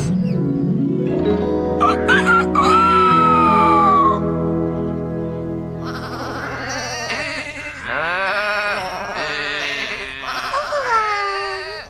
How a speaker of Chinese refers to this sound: 哦，什么？绵羊在我们的工厂里？ 哎，我们不在工厂里，我们在露营呢。哇哦，农夫佩克斯的绵羊已经出去了，大门开着，他们到处走。